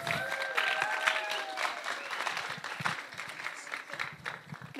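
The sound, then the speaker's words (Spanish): A crowd applauds steadily to welcome two guests, dense rapid clapping filling the whole stretch at moderate loudness, with a faint whistling tone and scattered voices mixed in early on. “Les recibimos con un fuerte aplauso.”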